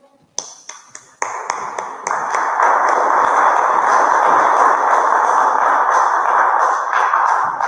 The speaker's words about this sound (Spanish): Un caluroso aplauso, por favor.